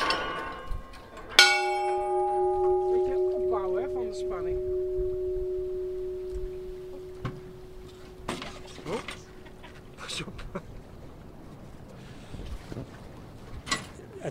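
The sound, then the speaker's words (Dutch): A single deep church bell strike, the church bell of Beulaken, rings out clearly and hums on for several seconds, its tone slowly wavering as it fades, with faint rustling and scattered knocks in the background. “schijnt dat je hier soms op woelige nachten nog de kerkklok kunt horen.”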